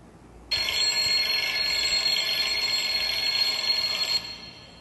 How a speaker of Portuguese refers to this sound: Harry virou-se e desligou seu despertador.